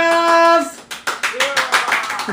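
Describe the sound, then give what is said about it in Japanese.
A brief held, tonal voice-like note fades into a burst of audience applause, many hands clapping in a dense, fairly loud patter for over a second. “たくさんの拍手ありがとうございます”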